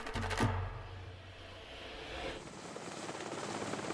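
A helicopter flying over the Greenland ice sheet, heard from inside the cabin: a steady rotor drone with a dense rumbling roar and rapid chopping pulses, loud and continuous throughout, with no voices.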